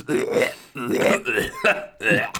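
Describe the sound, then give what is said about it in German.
Four guttural, croaking burp-like bursts from creepy nurse monsters in a video game follow one another in quick succession, fairly loud, each a rough, gurgling eructation with brief gaps between. “ich mach dieses Rülpsgeräusch rein von diesen Creepy Nurses aus Silent Hill 4”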